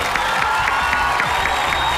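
A crowd applauds steadily for a couple of seconds, a dense wash of many hands clapping at once with a fairly loud, even level and no voices standing out.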